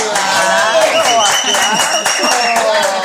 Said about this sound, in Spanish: ¡Aplausos! ¡Aplausos! ¿Dónde está el que les pone aplausos?